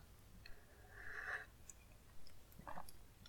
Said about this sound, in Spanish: Pausa para trago de café.